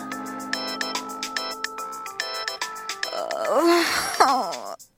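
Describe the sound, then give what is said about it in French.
A phone ringtone repeats in short melodic bursts against a steady pulse at night, waking a sleeping woman, then a drowsy voice groans and moans loudly over the last ring. “Une nuit, alors que je dormais tranquillou comme une saucisse enroulée dans son bacon, j'ai été réveillée par un coup de téléphone.”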